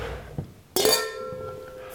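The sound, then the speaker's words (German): A bright clink of wine glasses touching in a toast, one sharp strike followed by a clear ringing tone that slowly fades, with no talking. “Cheers. Cheers.”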